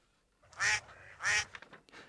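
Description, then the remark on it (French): A duck quacks twice in quick succession, loud and nasal, followed by a few softer, fainter murmurs as the sound trails off. “Coin coin donne vac vac en turc et bat bat en arabe d'Algérie.”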